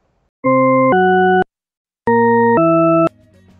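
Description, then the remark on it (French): Two pairs of steady, synthetic organ-like tones, each pair two back-to-back notes separated by a short silence, where the pitch change sounds ambiguous, heard as either rising or falling; a faint low hum follows. “Est-ce que vous entendez des sons ascendants ou descendants C'est-à-dire grave aigu ou aigu grave.”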